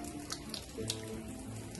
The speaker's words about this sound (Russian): Ну вот видите, вот она течет вода.